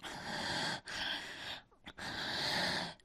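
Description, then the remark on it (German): Heavy, raspy breathing, three long noisy breaths in and out with brief pauses between them, no talking, added by a German dubbing voice at the end of a film scene. “Und die deutsche Synchronstimme hat dem dann noch bis zum Ende der Szene ein paar Sekunden langes Atmen hinzugefügt”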